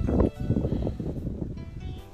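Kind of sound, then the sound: nature, wind blowing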